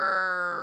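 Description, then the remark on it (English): A voice imitates the long creak of swinging saloon doors in a Western: one sustained, groaning vocal tone, fairly loud, held for under a second with no other sounds. “You're at the saloon, the doors sound like this.”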